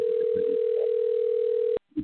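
A phone line rings on an outgoing call to a caregiver: a single steady, fairly loud tone lasts nearly two seconds, cuts off abruptly, and is followed by a faint, brief murmur.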